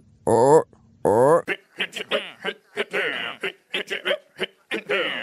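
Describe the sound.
Odd vocal noises recorded as percussion in the background of a song's chorus: two drawn-out voiced cries, then a quick, rhythmic run of short clicks, breaths and chuffs, fairly loud, with no clear words.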